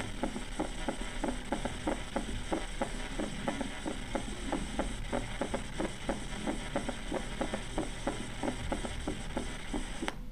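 A third heart sound heard through a stethoscope: soft, low thuds in a steady galloping rhythm with an extra faint beat after each pair, repeating over a constant low hum with no voices.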